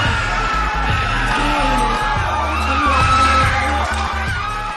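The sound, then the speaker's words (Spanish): A man whoops and shouts excitedly as Zendaya is announced as the Emmy winner for Euphoria, his cries rising over a loud, thumping rhythmic backdrop that runs steadily for the whole few seconds. “Ahí estaba eh, gritando”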